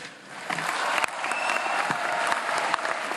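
Sustained applause approving a decision by acclamation, many hands clapping in a dense, steady wash for a few seconds, with a few sharper claps standing out and no speech over it.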